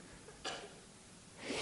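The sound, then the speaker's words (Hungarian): A single short sneeze bursts out about half a second in, fairly quiet and slightly muffled, followed by a soft breathy rush of air near the end. “És egészségedre”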